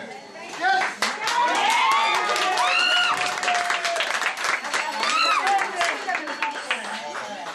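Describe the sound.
Staff at the news desk of Greek public broadcaster ERT burst into sustained, loud applause on learning of a court decision overturning the broadcaster's shutdown, dense clapping mixed with excited whoops and cheering voices rising and falling throughout.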